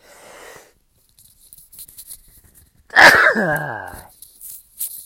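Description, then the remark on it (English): A single loud, sudden sneeze bursts out, trailing into a strained, wheezy vocal tail, with soft breathy noises before it and quiet rustling after. “Uh, I got sneezed.”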